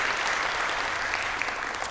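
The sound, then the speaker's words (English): An audience applauds steadily for the volunteer leaders of a church's VBS children's ministry, a dense wash of many hands clapping at an even, sustained level for a couple of seconds with no voices standing out. “Can we get a round of applause for them as well?”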